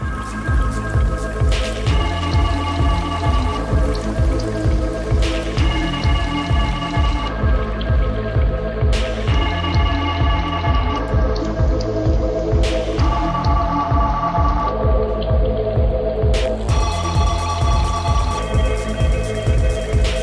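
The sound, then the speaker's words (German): Steady, loud underground techno track with a repetitive pulsing beat and layered synth tones that shift every few seconds; no voices. “ich habe den Track, das ist so ein man, man hört es jetzt wahrscheinlich im Hintergrund, es ist so ein undergroundiger ähm, Techno-Track, der äh, relativ innovativ ist, finde ich.”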